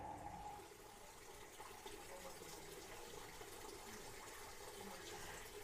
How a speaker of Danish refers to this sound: Her er vi nærmest trådt ind i et magisk univers, vi hører lyden af vand, der løber